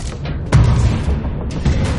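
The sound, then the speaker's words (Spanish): Security guards pound a sledgehammer on the door of the Animus hall in a few heavy, booming blows spaced irregularly, each a loud low thud with a rough crack on top, with no voices. “Los guardias de seguridad golpean la puerta de la nave del Animus con un mazo.”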